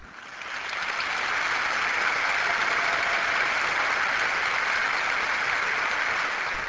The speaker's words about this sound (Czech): Dlouho trvajícím potleskem přijali synové a dcery svatého Františka tento odkaz Benedikta XVI. na typický a proslulý slovní obrat svého zakladatele.